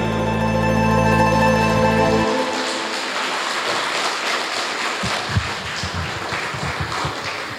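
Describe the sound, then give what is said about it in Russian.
A steady, humming musical tone cuts off after about two seconds, and an audience at a festival opening celebration in the Republic of Crimea breaks into dense, sustained applause, a crackling wash of many hands clapping with a few sharper claps standing out. “И еще аплодисменты, друзья, не жалейте сегодня.”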